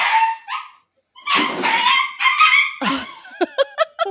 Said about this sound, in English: That that was the puppy. She was trying to play with the cat.